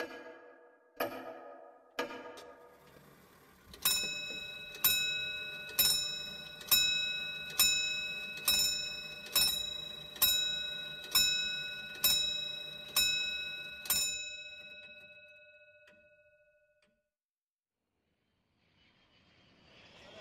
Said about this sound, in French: Telle une réponse venue du néant, l'horloge résonna plusieurs coups de gong annonçant la nouvelle heure.